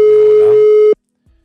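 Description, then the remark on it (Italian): A telephone ringback tone: one steady, loud electronic beep lasting about a second, then cut off into silence while an outgoing call waits to be answered. “Sette squilli, ricordiamo, altrimenti non prende punti.”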